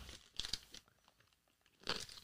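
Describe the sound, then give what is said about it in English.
A crisp bite into a Reese's Big Cup of milk chocolate and peanut butter stuffed with potato chips: a cluster of sharp crunches, a pause with quiet chewing, then another loud crunch near the end, no talking. “Milk chocolate and peanut butter stuffed with potato chips.”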